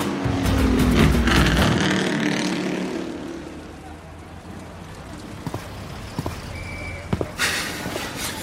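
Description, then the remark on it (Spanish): Racing cars roar loudly as they accelerate through a curve toward the front row, then fade away, leaving a quieter background broken by a few sharp clicks and a short hissing burst near the end. “Moss aprovecha la curva para acelerar como los grandes y acercarse a la primera fila”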